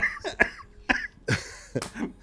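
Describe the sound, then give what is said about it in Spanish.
A series of about four or five sharp coughs in an irregular cluster, each a short harsh burst with a brief pause between, with no talking. “no tenía tos y me va a hacer agarrar tos.”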